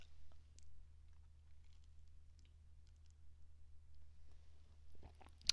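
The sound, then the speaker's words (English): Someone quietly takes a sip of a drink, with soft mouth clicks and swallowing sounds over a low steady hum, ending in a short sharp click. No one speaks. “Let me let me take a sip before I read this bitch for filth.”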